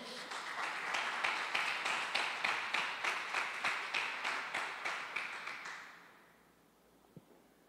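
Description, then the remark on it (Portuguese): An audience claps for the Lord steadily in a fast, even rhythm for about six seconds, loud, before the applause fades out into near silence. “Você pode dar um aplauso aí ao Senhor?”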